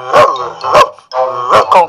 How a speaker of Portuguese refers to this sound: Contudo, o casal de idosos apenas ouvia Max latindo normalmente.